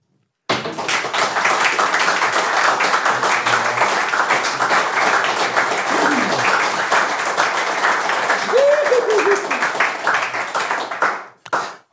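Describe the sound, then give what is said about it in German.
An audience gives a test round of applause for two guests, bursting into sustained, dense clapping that holds steady for about ten seconds before fading out, with a few faint shouts or whoops mixed in. “Eben, und bevor wir so weit sind, Applausprobe für die beiden Gäste.”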